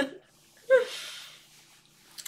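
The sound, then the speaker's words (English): A single breathy yawn: a brief voiced onset swelling into a long airy exhale that fades out over about a second, with a faint click near the end. “I do apologize for the yawning, guys.”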